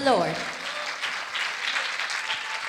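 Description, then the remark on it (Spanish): A church audience breaks into steady, dense applause for God that holds at a fairly even loudness throughout, with a brief voice fading out at the very start. “Dale un aplauso fuerte a ese Dios de poder.”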